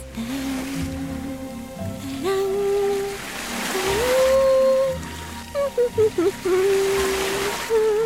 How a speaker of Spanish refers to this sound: Bailo la música de las olas. ¿La música de las olas?